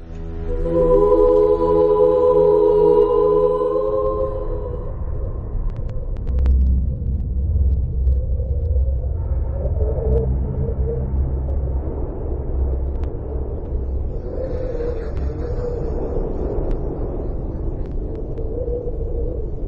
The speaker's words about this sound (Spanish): vibra de una forma distinta y por ende cada uno tiene un sonido propio, único. Los anillos de Saturno, la Tierra, Urano, Neptuno, cada uno de estos cuerpos en el espacio produce su propio sonido. ¿Qué sonido? Vamos a escuchar el siguiente.